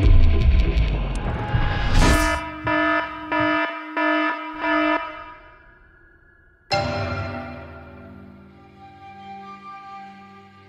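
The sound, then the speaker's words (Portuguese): An electric bell buzzes in a quick series of about five short, even rings, then a louder sustained ring starts and slowly fades out. No voices. “Atenção, atenção, após a quinta campainha tem spoiler, então é por sua conta e risco.”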